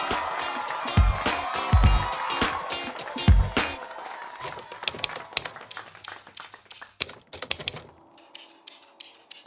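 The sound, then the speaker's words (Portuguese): A round of clapping from a small group welcoming an Argentine improvisation performer on stage: dense, sharp claps for the first few seconds, then thinning into scattered, irregular claps that fade out. No voices are heard. “Omar Argentino Galvão palmas.”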